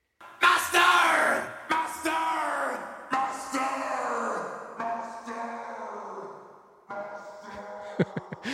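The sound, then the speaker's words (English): A tape reel on a pre-Pro Tools recording is slowed by hand, just before the slow section of the song. Loud, shouted-sounding voices sag and drag downward in pitch over several phrases, each warble sinking lower before the next starts. “they're like putting their hand on the reel and slowing it down.”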